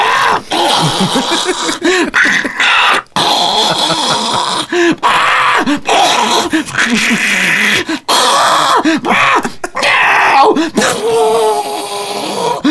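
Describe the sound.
A voice loudly imitates two cats fighting, with continuous yowling, wailing and growling that swoops up and down in pitch, broken by a few brief pauses.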